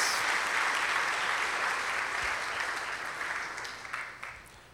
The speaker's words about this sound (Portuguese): Por favor, uma salva de palmas para essas duas aqui